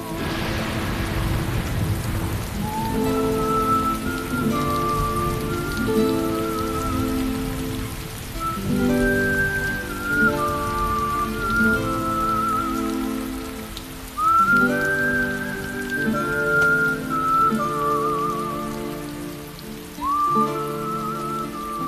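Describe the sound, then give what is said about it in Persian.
Steady rain falls with a constant, even hiss throughout, while a melodic tune of sustained, gliding notes plays over it. No one speaks. “بارون چه کلیشه ای”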